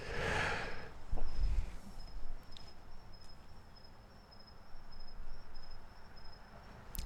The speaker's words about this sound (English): Well, I'm just vibing to the crickets out here.